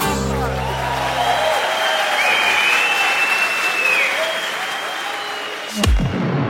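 Sustained audience applause, a dense steady clatter of many hands clapping, with a faint cheer rising above it midway and a sharp thump near the end.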